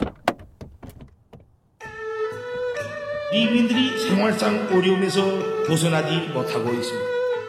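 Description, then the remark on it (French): A quick run of sharp clicks and knocks, like car doors unlatching and people climbing out, then a loud, dense wash of voices and tonal sound takes over for the rest. “sortons de la voiture et présentez-nous à Kim Jong-un”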